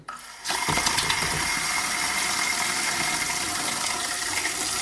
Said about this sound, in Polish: Mamy zawór. Ok. Może nie na 100%. Odkręcam tylko trochę. Nic nie cieknie.